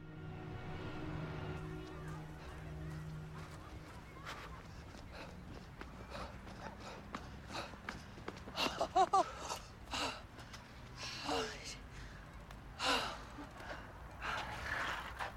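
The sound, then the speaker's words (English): Two people, a woman and her friend, run together, their quick footfalls tapping steadily while heavy, gasping breaths rise and fall, growing more labored toward the end. “is running with her friend again. This time we're going to hear them together.”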